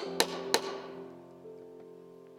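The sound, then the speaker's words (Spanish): Two sharp, loud hammer blows drive a nail into a wooden cross in quick succession, then stop while a soft sustained musical tone hums underneath and lingers. “Yo no sé cómo se llama, pero esta noche simbólicamente tome un clavo, recoja un martillo y venga a la cruz y clave”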